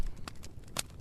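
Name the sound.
fireplace fire crackling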